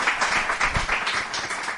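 Audience applause: a steady wash of many hands clapping together, dense and crackling with no gaps, lasting about two seconds at an even, moderate loudness.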